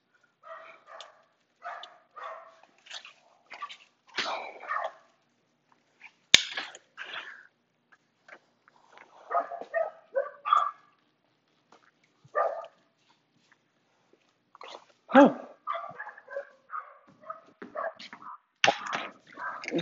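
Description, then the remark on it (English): A person's dogs bark and yip excitedly at someone coming home, in quick, irregular bursts, moderately loud, with brief pauses between flurries and a sharp click partway through. “Makes my dogs happy that someone's home.”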